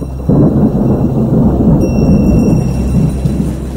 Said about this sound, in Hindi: सावन के दिन थे बारिश हो रही थी